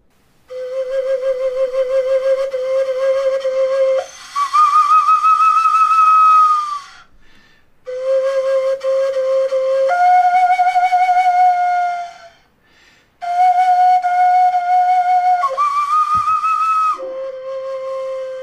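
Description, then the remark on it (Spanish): A prehistoric bone phalanx whistle, a phalanx found from long ago with holes in it, is played in three loud, breathy phrases, each a steady low tone that steps up to a higher shrill note, separated by short pauses. No one speaks. “Y bueno, vamos a escuchar cómo este, esta, esta persona eh, está interpretando en ese instrumento prehistórico.”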